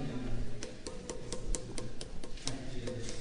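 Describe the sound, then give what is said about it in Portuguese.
Sharp, dry taps strike a stone temple pillar in India in an irregular series of about a dozen knocks, over a low background hum with no voices. “Vamos ver se dá som de sino né?”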